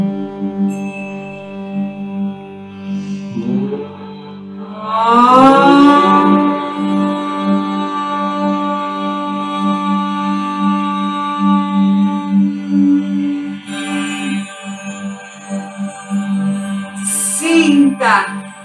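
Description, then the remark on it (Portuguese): A single voice chants a long, sustained, resonant vowel tone, "Uau," during a guided breathing meditation, gliding upward at the start and then holding steady for over ten seconds, fairly loud, with a brief rise near the end. “Respira e deixe vibrar o som Uau!”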